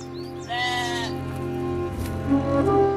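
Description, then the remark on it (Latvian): A lamb bleats once, a loud wavering cry near the start, with softer bleating sounds later over a steady low background hum. No one speaks. “Vienīgi viens pats ieriņš, vēl glumži mazs, ko viņš bija pircis un izaudzējis, un kas pie viņa bija izaudzis kopā ar viņa bērniem.”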